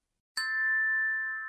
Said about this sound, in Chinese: 第二天清晨，他听见窗外响着风铃声，他来不及穿好衣服，拖着鞋跑到院子里。他看见在他家的枣树上真的挂着一串风铃呢。